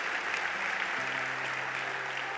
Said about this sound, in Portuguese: Um aplauso ao Senhor Jesus Cristo.